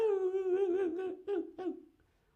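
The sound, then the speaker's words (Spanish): A dog's high, wavering whimper: a drawn-out nasal whine that rises and dips, then breaks into a few shorter whimpers before fading. It is fairly clear, with no other sounds. “Un gemido.”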